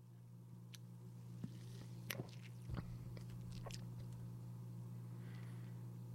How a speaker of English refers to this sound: I'm going to take another sip and then we'll get back into the music.